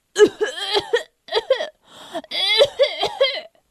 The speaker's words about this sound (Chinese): 这时，田鼠克拉拉突然一阵咳嗽。